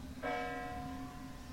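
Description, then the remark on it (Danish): A single church bell strike rings out and hangs in the air, its bright overtones slowly fading over a low steady hum. It is fairly quiet, with no voices. “Alle de steder, hvor der sker noget interessant i podcasten, der er der klokker, kirkeklokker i baggrunden.”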